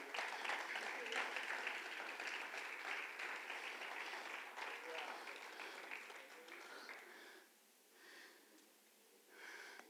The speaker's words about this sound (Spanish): Denle un fuerte aplauso a Cristo, hermano.